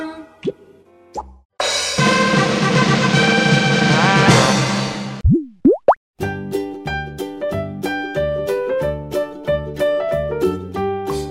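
Cartoonish bubble-popping plops with a pair of quick rising whistle-like sweeps, set against bright, bouncy music that settles into a rhythmic pattern of short plucky notes.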